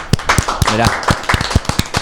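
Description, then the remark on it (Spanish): Scattered applause from a small seated group, a dozen or so sharp, uneven claps over two seconds with a brief voice sounding underneath partway through, applauding the winner of a Christmas pan dulce (sweet bread). “Y ahora que estamos sentados, un, aplauso, que somos más.”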